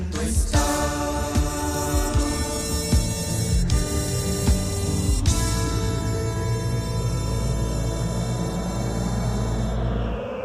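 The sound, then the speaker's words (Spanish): The theme song of the children's TV show Odisea Burbujas, from about 40 years ago, plays steadily at moderate volume, with sustained tones, a few sharp accents along the way, and no voices over it before the sound thins out at the end. “Hace 40 años escuchábamos este tema. A ver, súbele, por favor”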